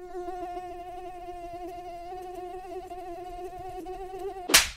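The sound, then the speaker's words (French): A tiger mosquito (Aedes albopictus) gives a high, steady whine, its pitch wavering slightly, until a sudden sharp noise cuts it off at the very end. “Eh oui, le moustique tigre m'adore et me colle tout au long de l'été.”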